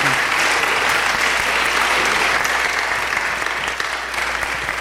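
Sustained applause from a crowd, a dense steady patter of many hands clapping at an even loudness throughout, with no talking over it.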